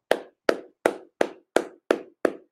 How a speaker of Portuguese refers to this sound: Muitas palmas para todos vocês. Muitas palmas.